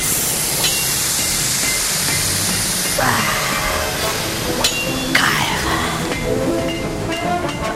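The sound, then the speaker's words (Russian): Hot forged metal is plunged into cold water with a loud, steady hissing sizzle for several seconds, which then breaks into softer bubbling and sputtering bursts as the steam dies down. “Будьте добры, возьмите вот, вот этот молот и перекуйте мне язык.”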